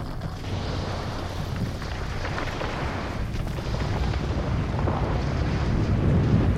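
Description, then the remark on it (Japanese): A continuous low, heavy rumble of a snow avalanche violently crashing down, dense and roaring with churning noise across the spectrum, steadily building in loudness over several seconds with no voices. “腹の底に響き渡る低い音とともに激しい勢いで雪の塊が覆いかぶさってきた雪崩だった”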